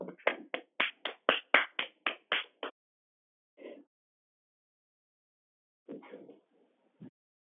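About ten quick, evenly spaced hand claps ring out as brief applause for the first contestant of an online talent show, then stop; a few scattered, softer sounds follow after a pause. No one speaks.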